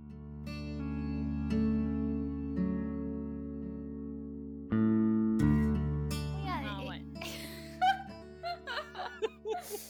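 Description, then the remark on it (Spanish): A dramatic radio music bridge of sustained, swelling synth chords that shift to a new chord midway, with wavering vocal-like cries and gasps rising over the music near the end. “Voy a hacer lo que Juli odia. Cortina de profundidad.”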